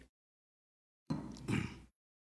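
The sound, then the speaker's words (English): A person takes a quick sip of water, a short slurp followed by a breathy, satisfied exhale, with brief silence around it and no talking. “You've got to wait till I get a drink of water.”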